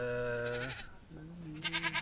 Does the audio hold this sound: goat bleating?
yes